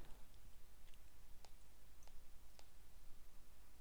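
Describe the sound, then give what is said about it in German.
A handful of soft, sharp computer mouse clicks, spaced irregularly about half a second apart, against a quiet, steady low hum with no talking. “Nee, ich bin hier nur gerade äh, auf Sachen am Klicken.”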